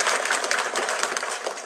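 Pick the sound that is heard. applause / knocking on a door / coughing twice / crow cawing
applause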